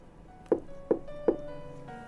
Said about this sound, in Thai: ยืนดูทางที่ปิดอยู่ ลองเอามือเคาะให้สัญญาณ ครูใหญ่ ๆ ก็มีเสียงเคาะตอบ